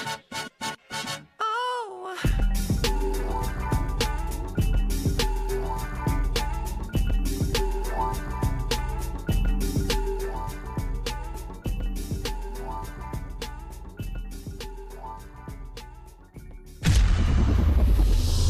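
A pop song plays loud, its steady punchy beat and layered instruments kicking in after a brief rising intro, then cutting to a burst of noisy sound at the end.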